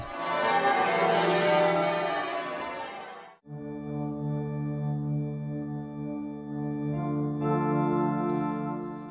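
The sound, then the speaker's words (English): The bells of Lincoln Cathedral in Lincoln chime loudly in a dense, ringing wash, then give way to long sustained humming tones as the peal decays, with a fresh strike near the end. No talking. “And the bells there, the chiming bells of Lincoln Cathedral, telling us that it's time for a question of Lincoln.”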